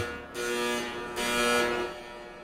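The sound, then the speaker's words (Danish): A security gate alarm, set off when a man slips through the gate behind the person in front of him, buzzes loudly and harshly in two long, sustained pulses, one right after the other, with no talking. “Og så går der en alarm.”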